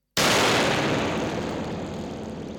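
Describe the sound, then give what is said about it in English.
A single sharp strike with a stick on the exposed springs of a spring reverb unit called a moisturizer sets off a huge, crashing metallic boom that swells across the whole range and decays slowly into a long, rumbling wash, with no voices present. “It's called a moisturizer, and basically you can hit the spring with a stick, which sounds yeah.”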